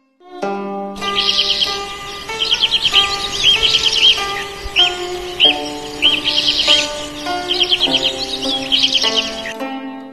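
Young magpies chirp together in quick, high-pitched bursts that repeat roughly every second, fairly loud, over a steady background of sustained musical tones.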